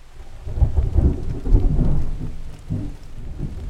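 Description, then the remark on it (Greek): Steady rain falls on a rainy morning, with low rolling rumbles of thunder swelling and fading in the background. No voices, just a continuous wash of rainfall with deep booms. “Ήταν ένα βροχερό πρωινό.”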